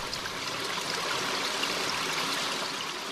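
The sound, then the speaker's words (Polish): A steady rush of flowing stream water by a footbridge, continuous and even for the whole stretch, with a bright, hissing babble and no voices. “Idąc dalej, dotarli do strumienia i zatrzymali się przed kładką.”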